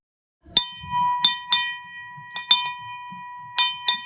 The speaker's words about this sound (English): So at Hudson Kitchen, we have what I call the money bell. It's in our lobby and we ring it when people are celebrating something.